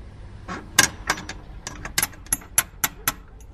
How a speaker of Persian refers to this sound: هوشنگ سراسیمه خودش را جلوی درب خانه رساند و کلون زنگ زده آن را به صدا درآورد